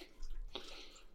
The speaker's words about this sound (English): drinking water in the background. If you're wondering what that noise was